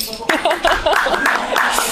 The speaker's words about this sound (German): Und das ist einen Applaus wert.